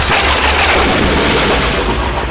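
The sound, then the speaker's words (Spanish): A loud thunder clap sound effect: a dense, crackling boom that rolls on as a continuous rumble for a couple of seconds, with no speech. “Y ahora tiene que venir un trueno.”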